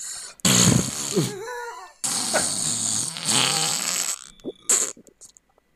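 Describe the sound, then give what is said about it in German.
A voice makes a few loud, sputtering raspberry sounds imitating farts, in bursts with short pauses between them, the longest lasting about two seconds. “Das heißt, ich mache jetzt Furzgeräusche und du.”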